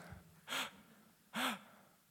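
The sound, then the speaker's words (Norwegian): Two short, sharp breaths drawn in through the mouth, fairly loud, separated by a pause of about a second, each a breathy rush with a slight voiced catch. No talking. “Jeg vet ikke om noen av dere noen gang har prøvd å bare puste inn.”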